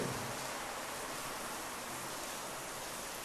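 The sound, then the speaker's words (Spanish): Steady rain falls in a soft, continuous hiss, even and unbroken throughout, with no voices or other sounds standing out. “Mi tribu, vieran que rico está lloviendo otra vez.”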